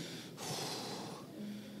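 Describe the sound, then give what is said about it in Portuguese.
A voice imitates heavy panting, a couple of breathy, out-of-breath gasps, one sharp intake followed by a longer rasping exhale, with no words spoken. “Aí de repente, acaba a noite, você tem aquele momento intenso de intimidade, e aí ofegante, você fala para ela assim,”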